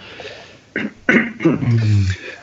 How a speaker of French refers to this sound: Excuse-moi, je tousse, je pense que. Non, enfin, c'est pas encore le virus.